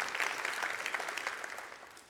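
An audience breaks into applause, a dense, steady patter of many hands clapping together that holds strong and then tapers off slightly toward the end, with no one speaking.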